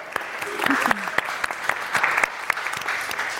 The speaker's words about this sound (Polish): Bardzo, bardzo dziękuję naszym stałym partnerom, bo premiera pisma nie odbyłaby się bez kancelarii CMS i bez Fundacji imienia Heinricha Bola w Warszawie. Także brawa dla naszych partnerów.